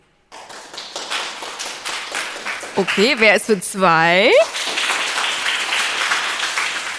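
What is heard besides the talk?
audience clapping to vote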